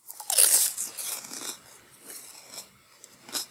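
A sharp crunch as a graham cracker frozen in liquid nitrogen is bitten, followed by several softer crackly chewing bursts, with no talking.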